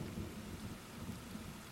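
Steady rainfall hisses across the whole clip while a low, rolling rumble of thunder churns beneath it, continuous and fairly soft, with no voices.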